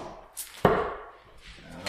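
A single sharp thwack of a dart striking a dartboard, with a brief resonant tail and faint background noise before and after. The dart is thrown to see whose lands nearer the bullseye and starts the game.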